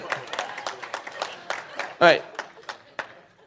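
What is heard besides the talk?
audience clapping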